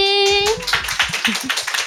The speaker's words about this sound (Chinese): 我们邀请了九位来宾来和我们聊聊他们最近的工作与生活。我们先掌声欢迎这些来宾。